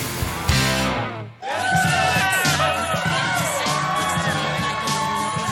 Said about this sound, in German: Immer ziemlich was los, wenn ich ins Büro komme. Es wird gejubelt und geklatscht und gequiekt, was das Zeug hält. Die Leute sind geradezu außer sich.